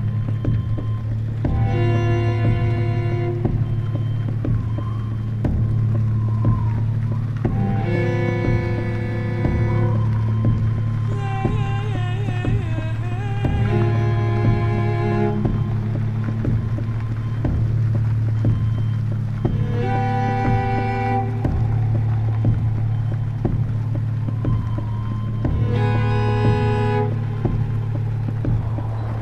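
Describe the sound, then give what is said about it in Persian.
A steady, low engine drone runs throughout as a car drives through the desert, with bright tonal bursts rising over it every few seconds. No one speaks. “یه ماشین داره تو بیابون حرکت میکنه”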